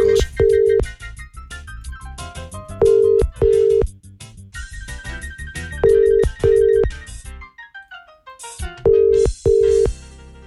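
A phone rings repeatedly with no answer during a call to wish someone a happy birthday, paired electronic beeps recurring every few seconds over a bright melodic ringtone tune, fairly loud, with no voices.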